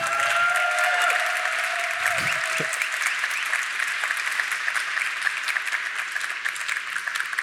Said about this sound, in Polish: Ogromne brawa dla Ciebie, świetna prezentacja, wprowadziłeś nas w ten świat